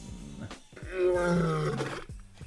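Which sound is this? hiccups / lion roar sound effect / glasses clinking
lion roar sound effect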